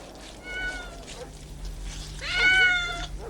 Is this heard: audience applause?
no